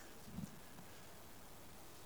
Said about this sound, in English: And I can hear that right now on this roof of this building. I love God because He's sending us good rain. If you don't believe me, look outside. That's good. I love rain.